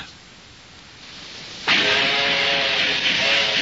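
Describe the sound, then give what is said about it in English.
After a quiet moment, an early steam locomotive suddenly bursts into loud, steady hissing steam with faint tonal whistling inside it, continuing strong to the end. “You're listening to an early steam locomotive a reminder of when it took forever to cross this country”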